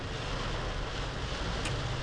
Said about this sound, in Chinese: 台北的梅雨季终于来了，嗯，所以大家应该有听到那个雨声。